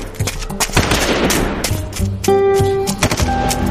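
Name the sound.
gunfire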